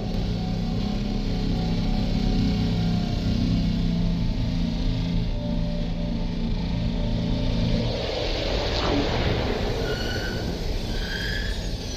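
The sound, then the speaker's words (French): A deep, steady spacecraft engine drone with layered low tones runs for several seconds, then cuts out and gives way to a thinner, hissing rumble with faint high whines as the engines are shut down. “Eh bien, il ne nous reste plus qu'à mettre les moteurs à l'arrêt”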